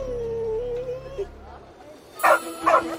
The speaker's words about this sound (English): Alto then jumped down and began to bark as if to indicate a direction to his mistress.